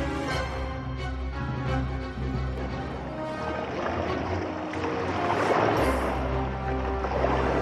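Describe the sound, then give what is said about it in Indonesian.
Steady splashing and swishing of water as a boat is rowed along, continuous, with a low rumbling background and faint murmurs of voices. “Teruslah mendayung.”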